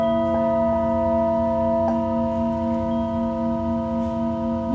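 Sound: singing bowl ringing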